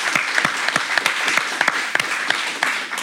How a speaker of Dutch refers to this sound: Ja, groot applaus voor Michiel via de stream. Hopelijk is hij online.